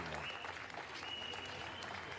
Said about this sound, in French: Quand il lance le deuxième, les gens se mettent à crier un grand Wouah d'enthousiasme. Même chose pour le troisième avion. Les gens applaudissent à tout rompre.